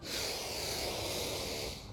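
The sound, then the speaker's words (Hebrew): A group draws in a deep breath together, one of three big breaths in a guided breathing exercise: a long, airy breath rushes steadily for about two seconds, a breathy hiss rising quickly and holding fairly loud. “הכל בסדר, בואו נעשה שלוש נשימות גדולות של נקה.”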